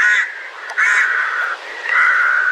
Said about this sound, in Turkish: Ama bu karga deyip geçtiğimiz tür İstanbul'da bir leş kargası. İzmir veya Bursa'da bir küçük karga Erzurum'da ise bir ekin kargası olabilir.